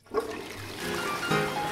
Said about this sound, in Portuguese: Você está ouvindo? Descarga!